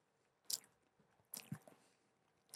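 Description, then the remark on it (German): Chewing candy from a sweets drawer, with wet, smacking mouth sounds and a few crisp crunchy bites, irregular bursts spread over a couple of seconds, no talking. “Das hört dir ein bisschen Schmatzeffekte.”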